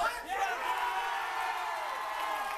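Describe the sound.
A crowd at E3 cheers and applauds as the logos come up, a dense, steady wash of clapping and raised voices with a few whoops, holding at an even loudness for the whole stretch.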